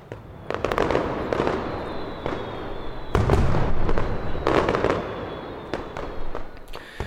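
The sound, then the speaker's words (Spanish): A dense mascletà firecracker barrage in Valencia, Spain: rapid, overlapping bangs and crackles burst continuously, swelling into heavier booming clusters, loud, with a constant rumbling wash beneath. “no percibimos el olor a pólvora ni la fantástica luz mediterránea que la suele alumbrar, pero creo que con lo que se escucha queda claro que estamos en Valencia, en el medio de una mascleta.”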